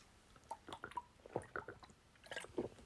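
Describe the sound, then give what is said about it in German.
Quiet sips and swallows of water, a series of small wet clicks and gulps spread over a few seconds, with no one talking. “Entschuldigung, ich musste einen Schluck Wasser trinken.”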